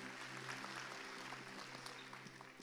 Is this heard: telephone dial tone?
no